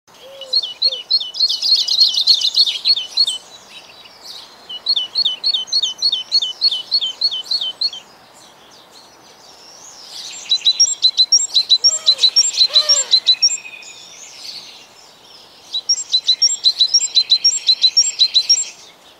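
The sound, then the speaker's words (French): A tit sings in three bursts of rapid, repeated high-pitched chirping phrases, clear, with short quiet gaps between songs and no voices present. “À un moment donné, tu parles des mésanges”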